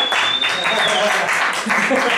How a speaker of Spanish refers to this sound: Ustedes también tienen que aplaudir.